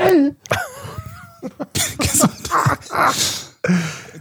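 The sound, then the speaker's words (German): A loud fit of sneezing: a rising, strained vocal build-up followed by several sharp, breathy bursts in quick succession, with short gasps between them. “Finde ich auch immer geil beim Niesen.”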